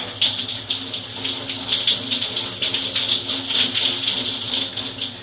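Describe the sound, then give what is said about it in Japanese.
Tap water runs steadily, with irregular splashes and spatters as water is scooped and rinsed over the face to wash off Biore makeup remover. No one speaks. “顔流します冷たくない”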